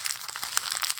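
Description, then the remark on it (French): A sheet of paper, a CV (résumé), being crumpled up before being thrown in the bin: a brief burst of dense, irregular crackling and crinkling with no voices. “Vous entendez C'est le bruit de votre CV que je froisse avant de le jeter à la poubelle.”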